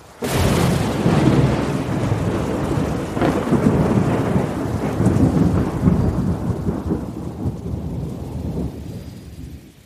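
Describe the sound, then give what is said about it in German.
A heavy thunderstorm: a loud crack of thunder opens into a long, deep rumble rolling over steady rain, the roar slowly thinning and fading toward the end. No voices. “als das böse Wetter vorbei war, standen die Blumen und das Korn in der stillen, reinen Luft, erfrischt vom Regen.”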